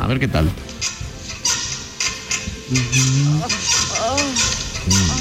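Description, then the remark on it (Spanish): A car's rear suspension creaks in several drawn-out, groaning squeaks that rise and fall almost like a low moan, repeating a few times, with brief speech at the start. “ese es el sonido de la suspensión trasera.”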